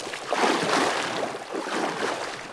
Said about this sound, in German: Dann steigt das Team auf eine Piroge um. Das Boot wird von Männern aus dem Dorf für einen kleinen Lohn gepaddelt.